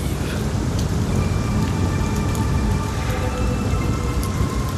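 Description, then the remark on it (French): Heavy rain pours down steadily at night, a dense, constant wash of drops hitting surfaces with a low rumbling undertone and no voices. “Cette nuit encore, la pluie est rouillée, lourde, corrosive.”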